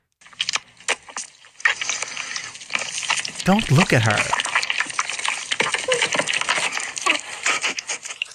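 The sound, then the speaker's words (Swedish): Dense wet smacking and squelching of a woman eating live octopus runs continuously with sticky clicks, while a voice briefly speaks partway through. “Helt plötsligt ser jag en kvinna som äter levande bläckfiskar”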